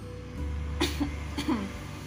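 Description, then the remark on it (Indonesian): Two short, sharp coughs about half a second apart, with no talking and only a low steady hum in the background. “bukan batuk corona guys”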